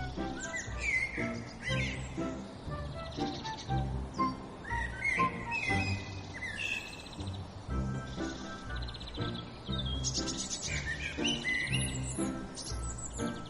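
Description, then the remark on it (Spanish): Birds sing and chirp continuously among trees in the countryside beside a small road, several calls overlapping in quick bright phrases over a soft rustling outdoor background, steady throughout. “Estaban rodeados de árboles y los pájaros cantaban.”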